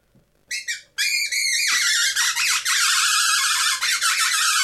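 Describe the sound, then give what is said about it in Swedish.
Loud predator call, a black Woodpecker model used to lure foxes when hunting, imitating an injured bird: a couple of short shrill squeals, then a continuous stream of frantic, wavering high-pitched distress cries with no talking. “Eh, men den här svarta, här, det här är eh, Woodpecker. Jaha, okej. Okay. Och eh, ja, men det, det, imiterar ju liksom en skadad, eh, en skadad fågel.”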